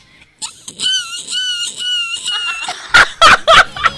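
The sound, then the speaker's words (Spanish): A person vocally imitates a seagull flying away into the distance: several long, wavering high-pitched cries in a row, then a few short, harsh squawking bursts, fairly loud with no talking. “Yo puedo escuchar un perfecto ruido de una cigüeña. No, no, cigüeña no, de una gaviota alejándose, si le sirve de imitación.”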